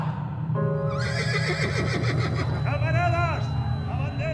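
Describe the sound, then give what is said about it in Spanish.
Horses of more than a hundred mounted Security Guard members, armed with sabres and revolvers and escorting an anarchist demonstration, whinny and neigh repeatedly. Their wavering, pitch-bending calls rise loudly over a constant low rumble and background crowd noise throughout. “La movilización anarquista fue custodiada por más de un centenar de miembros de la Guardia de Seguridad, montados a caballo y armados con sable y revólver.”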